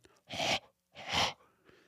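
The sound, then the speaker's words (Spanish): Two forceful, breathy exhalations, fairly loud, each lasting about half a second with a short pause between, as a person huffs breath onto glass. “Es el vapor de agua que vemos cuando exhalamos aire sobre un cristal.”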